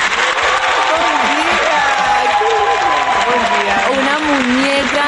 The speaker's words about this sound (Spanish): Yo quiero que se escuche ese aplauso hermosísimo